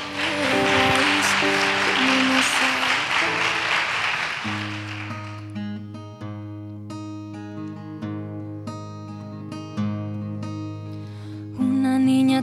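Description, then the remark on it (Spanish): A crowd applauds loudly for about four seconds, dense clapping for a singer called to the stage, then the clapping stops as a piano-led instrumental begins and carries on alone. “Así que pedimos un fuertísimo aplauso para ella.”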